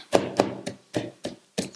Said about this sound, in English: Raise your hand right now where you are. Say, Thank you, Jesus, for your grace. And then give him a hand clap.